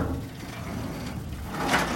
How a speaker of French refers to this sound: On a été euh, devant la porte du garage qu'on a ouverte tout discrètement